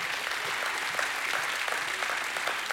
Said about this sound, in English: Go ahead, give God a great hand clap of praise. Amen.